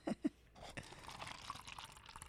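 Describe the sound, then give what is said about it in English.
Beer pours steadily from a tall can into a glass with a bubbly, fizzing rush, following two quick metallic knocks at the start. The moderately quiet pour has no talking. “Look at that pour.”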